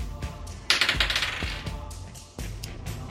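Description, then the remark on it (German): Dice clatter and tumble across a hard tabletop, a quick run of sharp clicks and rattles before settling, with a second burst of rolling near the end, thrown as a dexterity roll in a game. No one speaks. “Dann hätte ich gerne einmal einen Dexterity Throw. Also, mhm. ne, Dexterity Würfelwurf.”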